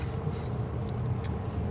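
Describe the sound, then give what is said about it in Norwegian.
Steady low rumble of a car cabin on the move, a continuous engine and road drone with faint higher ticks, no one speaking, while driving back from Horningdal. “Vi er her i uh, i bilen. Vi er på vei tilbake fra Horningdal rundt.”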